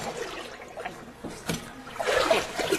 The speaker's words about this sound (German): Wasser und Wurzelflüssigkeit werden in einen Holzbottich gegeben und mit einem langen Stab kräftig verrührt.